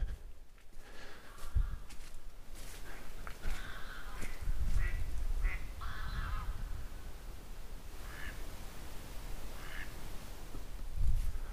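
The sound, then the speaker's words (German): Ducks quack repeatedly by a lake in a forest of tall conifers on a clear, starry night, a scattered series of raspy calls, some overlapping, with soft low rumbles and ambient hiss between them. “Also die Enten sind sehr aktiv. Es wundert mich mitten in der Nacht.”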